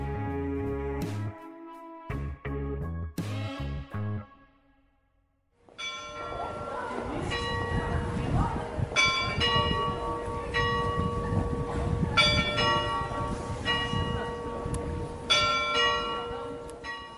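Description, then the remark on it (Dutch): Large church bells of the Sint-Bavo church in Haarlem ring out loudly, first in a few separate resonant strokes, then after a brief pause in a dense, continuous peal with overlapping tolls and long ringing overtones. “Nou, dat waren de kerkklokken van de Sint-Bavo in Haarlem.”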